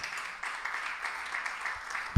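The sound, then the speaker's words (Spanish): An audience breaks into steady applause for the preacher's wife, a dense wash of many hands clapping at an even level for a couple of seconds, with no voices standing out. “Un aplauso por mi esposita también.”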